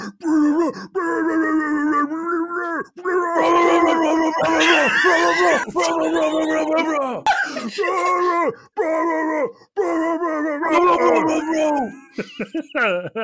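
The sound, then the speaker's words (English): A man screams and howls in strained, gravelly bursts of nonsense syllables, loud, sustained for about thirteen seconds with only brief breaks, a mock screamo heavy metal vocal in a made-up giant language. “so I'm gonna start screaming in giant with”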